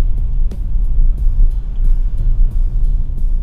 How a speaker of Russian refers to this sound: Еду в машине, записываю свой подкаст.